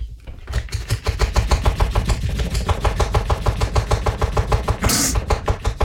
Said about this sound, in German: Wir schäumen jetzt also für euch auch diese Bio-Barista einmal auf und beurteilen dann die Schaumigkeit.